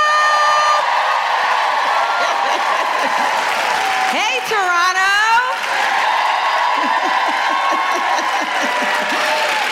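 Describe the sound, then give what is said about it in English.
A large stand-up comedy audience in Toronto applauds and cheers loudly and steadily as comedian Zainab Johnson is introduced. Whoops and a rising-falling shout ride over the dense clapping, and a voice briefly calls out over the noise. “then put your hands together and make incredible Toronto woohooing noises for the wonderful Zainab Johnson.”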